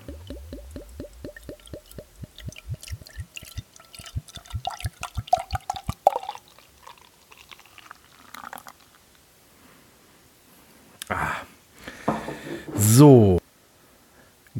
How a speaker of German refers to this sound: Und äh, Prost, ich schenke jetzt mal ein.